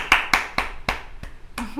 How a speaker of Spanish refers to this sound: Pues alguien que estaba ahí en la parte del público viendo el ensayo, aplaudió y aplaudió muy efusivamente.